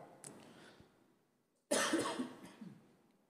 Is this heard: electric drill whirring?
no